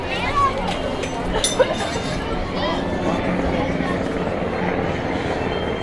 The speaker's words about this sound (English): That is a real helicopter, not a sound.